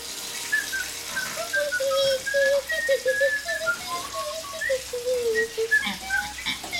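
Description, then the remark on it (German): A tap runs steadily with a constant hiss of water turned to warm, while someone whistles a wavering tune over it for the whole stretch. “Ich mache das Wasser auf warm.”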